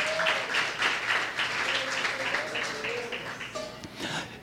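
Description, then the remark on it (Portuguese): Sustained audience applause offered to Jesus during a sermon, a dense, steady wash of many hands clapping at an even loudness for several seconds, with faint voices or cheering mixed underneath. “Você pode aplaudir a ele nessa noite em nome de Jesus.”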